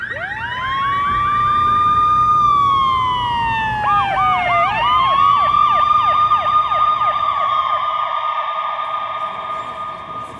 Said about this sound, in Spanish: El disparo hace que el sensor de su camioneta accione la alarma